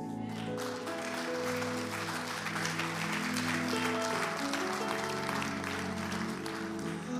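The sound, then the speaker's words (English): An audience claps steadily for several seconds, a dense wash of applause that stays fairly loud throughout, with sustained keyboard or organ chords holding underneath. “Man, give your sister a round of applause.”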